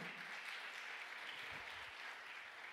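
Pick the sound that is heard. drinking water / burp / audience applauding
audience applauding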